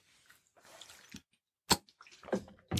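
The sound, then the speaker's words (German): Sounds of drinking water from a water bottle: soft liquid sloshing and gulps, followed by a few sharp, sudden clicks or taps of the bottle, with no talking. “Muss mal kurz was trinken.”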